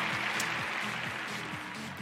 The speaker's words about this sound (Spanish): Un aplauso también para ellos. un aplauso para usted que me está viendo.